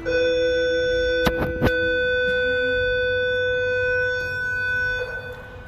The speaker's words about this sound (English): One day I'm gonna get the timing right so I can stop letting you guys hear my bell.